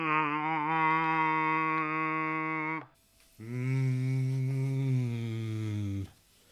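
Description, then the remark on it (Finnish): A person hums two long, steady droning tones, the first held about three seconds, a short pause, then a lower, slightly buzzier one, vocally mimicking the hum of a building's air conditioning system. “No, sen täytyy olla ilmastointijärjestelmä.”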